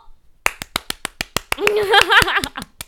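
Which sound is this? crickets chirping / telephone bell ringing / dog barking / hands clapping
hands clapping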